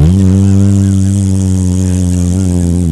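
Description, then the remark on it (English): A voice imitates a loud fart with one long, buzzy raspberry, low and steady with a slight waver in pitch, held for about three seconds with no other talking. “I'm just firing out like the wildest, like wily coyote farts”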